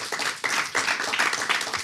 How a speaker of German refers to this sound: Und ich bitte euch um einen ganz herzlichen Applaus